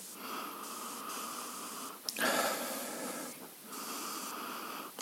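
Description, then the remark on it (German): Several steady, airy inhalations through the nose, sniffing a glass of craft beer, with a brief sharper sniff partway through and no talking. “Auf dem ersten Riecher”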